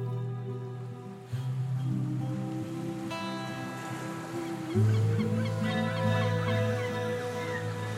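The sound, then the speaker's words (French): Seagulls in a street in Brittany, France, call fairly loudly and almost without pause, their harsh, stacked cries overlapping, with one call gliding upward near the end. A faint wash like surf runs underneath. “On est en Bretagne, mais il y avait les mouettes, et ça a arrêté dans la rue, et elle s'est levée la tête et euh, m'a montré les oiseaux”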